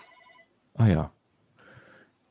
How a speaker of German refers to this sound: Irgendwas also für ja, das war mein Telefon.